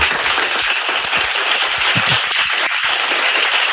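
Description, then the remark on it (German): An applause sound effect played in: a burst of crowd applause fills the whole clip, dense and steady, many hands clapping at once in a loud, hissing wash with no voices on top. “ich hoffe, das hört sich jetzt auch platt an und ich werde mir gleich selber drei Euro Applaus dafür einspielen”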